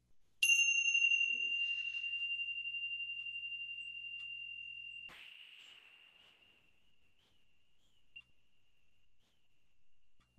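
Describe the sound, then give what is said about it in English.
A meditation bell is struck twice, about five seconds apart, rung to pause and reflect on teachings. Each strike rings out in a clear, sustained tone that slowly fades in the quiet, with no voices. “So what I'd like to do before we go to our Q&A is just let's take a moment and use the bell again to pause and reflect on these teachings.”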